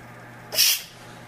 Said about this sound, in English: I want to make sure not to keep your face away from the unit as you release the pressure. slowly releasing pressure. You hear the steam coming out.